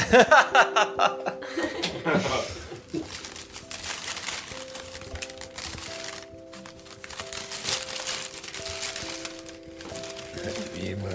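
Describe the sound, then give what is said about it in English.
A gift, an angel ornament, being unwrapped: paper crinkles and rustles steadily with scattered crackles and taps. A brief chuckle of laughter comes at the start, and a soft tonal hum runs underneath. “So you open it. Can you open it?”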